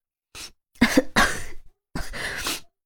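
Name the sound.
cough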